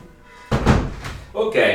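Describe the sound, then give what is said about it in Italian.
A window is pushed shut with a sudden dull thunk and a short rumbling slide, followed by a second bump with a brief bright, ringing tone as it latches. “Intanto chiudo la finestra perché sento delle sì, fantastiche campane.”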